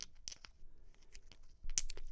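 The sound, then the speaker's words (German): Dice rattle and clack together in a cupped hand as they are turned in the hand before being rolled, a quick irregular series of small, sharp clicks, fairly quiet, with no voices. “Dann werden die Würfel in der Hand gedreht.”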